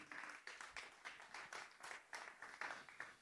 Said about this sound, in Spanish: ¿Cuántos dan palmas de alabanza al Cristo de la gloria?